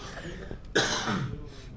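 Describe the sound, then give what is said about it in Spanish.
A single sharp allergic cough bursts out right into the microphone, loud and breathy, followed by a brief rasping tail as it fades back to a quiet background. “Oye, la, la, tos alérgica está causando estragos, pero creo que llevo ya una buena temporada tosiendo en el micrófono, así que se van a disculpar.”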